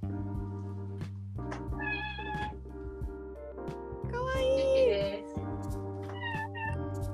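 A cat meows several times, its voice rising and falling in drawn-out, whiny cries against a steady low hum, with one louder, longer meow near the middle.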